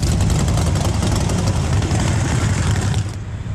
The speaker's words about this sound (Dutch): Het, het, het geweld van de motoren het geluid. Die hele grote groep achter je. En dan, en dan eh, af en toe dan, dan eh, werd er ook gas gegeven.